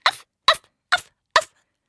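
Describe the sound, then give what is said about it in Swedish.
A voice imitates a neighbour's small dog yapping: four sharp, evenly spaced yips, fairly loud, each cut short, with silence between and no other talk. “Och har en liten jävla hund som bara”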